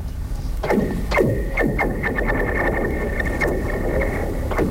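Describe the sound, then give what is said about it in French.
A rock grinds steadily across a metal plate at a set speed, producing a sustained ringing tone and repeated sweeping squeals over a constant rough rumble, fairly loud, with a reverberant wash. “Puis on avait plein de sortes de roches, puis on s'est rendu compte qu'il y avait un format de roche, plus un mouvement sur la plaque à une certaine vitesse, puis on avait vraiment le son qu'on voulait.”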